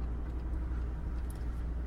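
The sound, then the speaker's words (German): Steady low engine and road rumble fills the space, the muffled, constant drone of riding inside a moving car, with no voices in this stretch. “Du müsstest es dir nur abholen, weil wir im Auto sitzen.”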